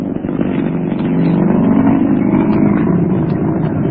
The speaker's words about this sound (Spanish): pequeño Solín se acomodó en el asiento mientras Calimán hacía funcionar la marcha de su Rolls Royce. Solín iba a comentar algo, pero prefirió quedarse mudo al ver a Calimán imprimir velocidad al moderno auto sport.